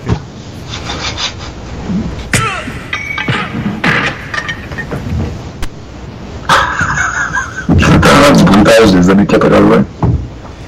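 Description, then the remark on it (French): Exaggerated 1980s movie punch sound effects in a fight in a theatre basement: several sharp, loud thwacks of a person being punched land at irregular intervals amid scuffling and clatter, getting denser and busier toward the end. “Il y, a... personne qui reçoit un coup de poing. Quand tu frappes quelqu'un, ça fait pas ce bruit-là.”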